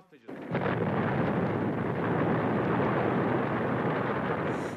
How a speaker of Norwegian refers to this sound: De tre passasjerflyene ble sprengt i lufta, og enorme skyer med kullsvart røyk steg opp fra ørkenen.